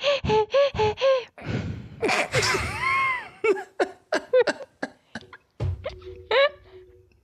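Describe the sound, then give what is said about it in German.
A voice imitates frantic panting of people running with a boom pole and a camera on the shoulder, a rapid series of short, loud breathy gasps and huffs in an uneven rhythm, some with a voiced, rising pitch, like someone hyperventilating after a run. “hyperventiliert ein bisschen.”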